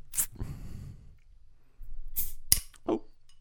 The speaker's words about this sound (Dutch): Ik open je biertje al voor je, hoor. Nee, doe dat in de microfoon, dan hoor je ze lekker